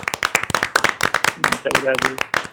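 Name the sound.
hand clapping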